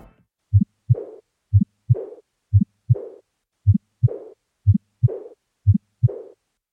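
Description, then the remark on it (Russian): Six steady heartbeat cycles of aortic regurgitation, where the aortic valve leaflets close too loosely and blood flows back during diastole: each a pair of low thuds followed by a soft, breathy decrescendo diastolic murmur that fades away, with a faint ejection click, clear with no voices. “Типичными аускультативными признаками аортальной регургитации является постепенно ослабевающий диастолический шум и щелчок изгнания.”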